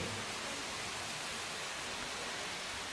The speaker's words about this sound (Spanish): Está lloviendo.